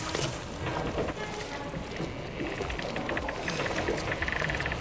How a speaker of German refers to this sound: an seiner linken Seite drehte sich ein mächtiges Mühlrad über einen kleinen Bach, der am Haus vorbeifloss.